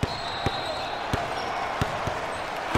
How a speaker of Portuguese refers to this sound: Sobe a vinheta agora.